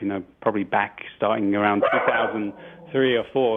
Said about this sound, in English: Excuse my dog. Um, the dog's always welcome. yeah, there must be someone at the door, but.